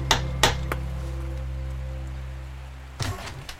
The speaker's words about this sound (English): He's even got a really nice knocker, listen to that.